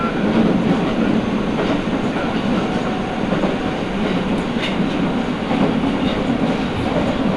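A Nagoya Municipal Subway Higashiyama Line train in Japan, running between Takabata and Fujigaoka, rumbles steadily along the rails, a constant loud roar with low rhythmic clatter and faint metallic squeals, heard from inside the car with no talking.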